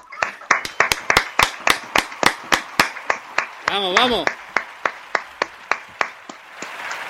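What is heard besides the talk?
audience clapping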